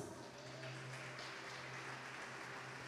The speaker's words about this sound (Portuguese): Aplauda Jesus.